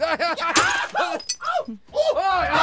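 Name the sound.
glass shattering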